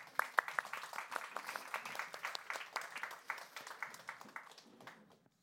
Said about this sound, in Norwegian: En liten applaus.